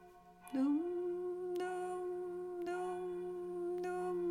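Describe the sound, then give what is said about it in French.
Church bells in a village ring out steadily in the rain under a grey sky, struck about once a second, each stroke blending into a loud, sustained humming resonance. No one speaks. “Donc euh, je vous laisse écouter les cloches en même temps que moi.”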